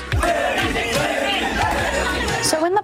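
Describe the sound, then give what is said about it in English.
A rowdy crowd of young male fans of LSU gymnast Livvy Dunne fills the air at her gymnastics meet with overlapping shouts, chatter and cheering, a dense, loud wall of voices that stays steady throughout with a few sharper yells poking out. “She is the LSU gymnast and influencer whose admirers cause a commotion at her meet.”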